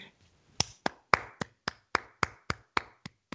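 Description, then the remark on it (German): One person claps hands about ten times in a steady, fairly quick rhythm, each clap a sharp, bright crack with a short decay, after a brief quiet start. “Ich will nicht so ein Mono klatschen.”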